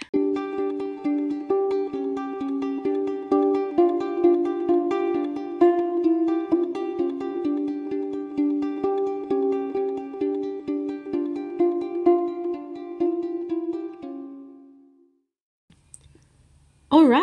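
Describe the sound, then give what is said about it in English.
A short transition music cue: steady, mid-pitched melodic notes over a quick ticking beat for about fourteen seconds, then it stops, leaving a faint low hum and a brief burst at the end. “Cue the going into the topic music.”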